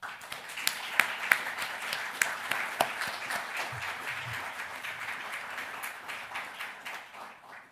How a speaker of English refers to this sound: We all do really look forward to this conversation. Cathrine Holst, the floor is yours, and we should give them a round of applause.